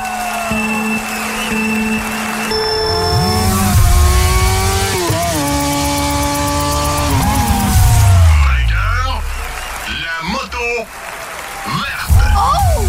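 Loud motorcycle race engines rev and whine continuously, their pitch climbing and dropping in repeated sweeps, with several engines overlapping and a busy crowd-like wash in the background.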